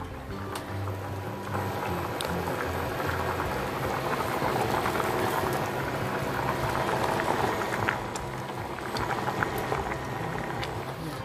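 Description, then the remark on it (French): A pot of canned, already-cooked chickpeas bubbling at a steady rolling boil, with continuous gurgling and scattered small pops and clicks, no voices. “On va écouter un petit peu le bruit des pois chiches, d'accord Écoutez bien, c'est de la SMR.”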